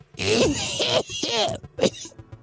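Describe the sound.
A voice mimics hacking up phlegm: three harsh, gurgling throat-clearing bursts in quick succession, the last one shorter, loud.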